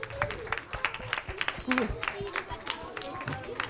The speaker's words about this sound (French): Merci beaucoup, c'est du très beau travail. On nous applaudit.